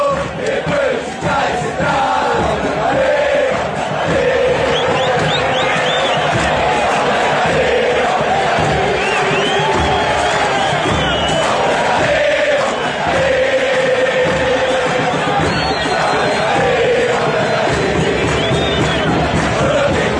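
A large crowd of football supporters sings a chant together, loud and sustained, with massed voices carrying a melody over a dense roar of stadium noise throughout.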